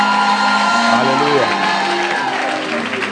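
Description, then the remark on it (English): A church audience breaks into loud, sustained applause and cheering to celebrate their pastor, with shouts and whoops rising from the crowd across a few seconds. “So let's celebrate our pastor with a big round of applause.”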